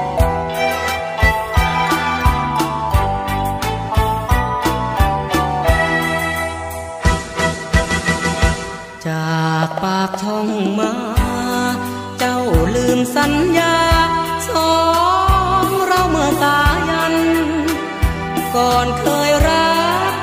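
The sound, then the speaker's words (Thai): A song plays loudly and continuously on a Thai navy radio program, with a steady rhythmic beat and full instrumental backing, a brief dip in the middle before the melody carries on strongly. “ช่วงนี้ผมมีเพลงพเพราะ รอกันอยู่ไปรับฟังเพลง เดี๋ยวกลับมาครับ”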